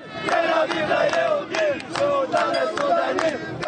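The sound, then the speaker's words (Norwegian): A loud crowd of Israeli demonstrators in Israel chants 'Sudanese to Sudan' in unison against African migrants, voices rising and falling in a steady rhythmic cadence with sharp accented syllables, dense and continuous throughout. “Sudanesere til Sudan, roper israelere som synes det er altfor mange afrikanere i den jødiske staten nå.”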